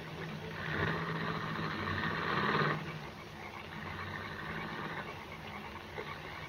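A car engine rumbles at a low idle in the rain with a steady hum, swells briefly, then pulls away and fades to a quieter, hissy background with no voices.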